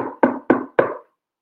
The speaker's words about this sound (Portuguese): O exército bateu na porta e arbitrariamente levou o Graciliano